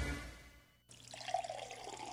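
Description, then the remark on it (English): After a short moment of near-silence, water starts running from a tap in a steady hiss, filling a jug with drinking water, with a faint rising tone like a container filling. “Bring a one or five gallon jug to one of our 10 watershed locations and fill them with fresh, pure water.”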